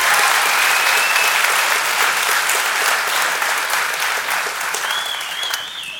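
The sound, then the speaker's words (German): Steady applause from an audience for Werner, the sound technician, fills the whole stretch, a dense wash of clapping that stays loud throughout and eases off slightly toward the end, with a faint whistle-like tone near the close. “Ein, ein kleiner Applaus für Werner, bitte.”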